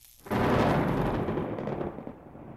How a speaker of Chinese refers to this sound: 但是就在这个时候，一道闪电劈了下来。他们的头上方传来了一声巨大的雷鸣，